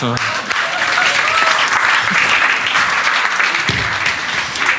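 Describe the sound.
A crowd applauds steadily for about five seconds, a dense, even wash of clapping with a brief voice or two faintly mixed in near the start.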